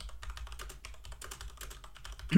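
Rapid, steady clicking of keys on a computer keyboard as someone types a short message, moderately quiet, with no voices over it.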